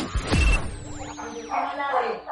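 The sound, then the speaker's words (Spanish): A dog lets out a short, loud bark, mixed with sweeping electronic whooshes and tones at the end of a BDM Radio station identification. “Sí, mira, el, perro agarró la seña agarró la seña en el momento justo que terminó la identificación y dijo, entro con todo, y entró con todo.”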